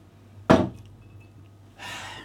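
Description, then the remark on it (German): An ice cube drops into a glass with one sharp clink that rings briefly. A soft crackling hiss follows a moment later. No one speaks. “Ein Eiswürfel rein.”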